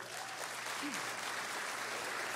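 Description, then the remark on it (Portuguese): An audience applauds Jesus for first-time visitors in a steady, dense wash of clapping that stays even and sustained from start to finish, with no voices standing out above it. “Vamos aplaudir Jesus por essas pessoas?”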